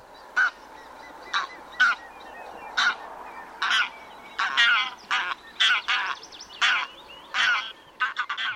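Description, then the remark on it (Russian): A greylag goose gives a rapid series of loud, nasal honking calls, about fifteen in quick irregular succession, heard clearly against a quiet background. “Да, то это очень сложно отличить вот то, как это делает серый гусь, вот послушайте.”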